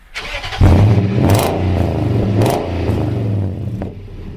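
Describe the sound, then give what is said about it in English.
A truck engine cranks and catches with a sudden loud roar, then idles and revs unevenly for a few seconds before easing off. No one speaks. “And you all decided to brave being in the truck with me.”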